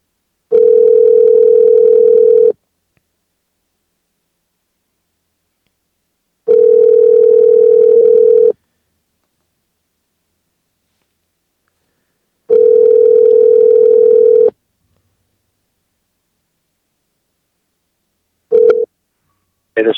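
An outgoing call's phone ringback tone rings three times, each steady two-second burst separated by about four seconds of silence, loud and clear, ending with a brief click as the call connects.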